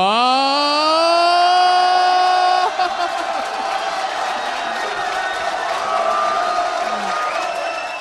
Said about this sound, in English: the crowd is going ballistic. Hands are in the air.